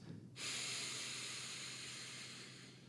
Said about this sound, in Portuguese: Faça uma respiração bem profunda e lenta. Inspirando pelo nariz